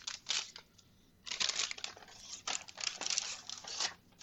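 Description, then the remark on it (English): Loud crinkling of a paper bag holding chocolate as someone gets the chocolate out, in irregular bursts of crisp rustling and crackling, with brief quiet gaps between handlings and no talking. “It is in a paper bag, which is not great for the audio.”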